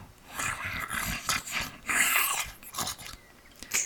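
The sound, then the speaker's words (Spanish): A wolverine gives deep, distinctive growls and snarls in a series of harsh, rasping bursts that rise and fall over a few seconds, with no one speaking. “tuvieron problemas para localizarla, localizar su guarida, cuando de repente se escuchó el profundo y distintivo gruñido de un glotón.”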